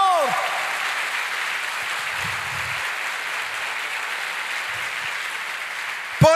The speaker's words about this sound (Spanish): Dele fuerte ese aplauso al Señor.